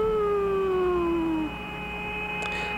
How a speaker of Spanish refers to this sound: That music even sounds outer spacey, doesn't it? You hear that? That whistling sound?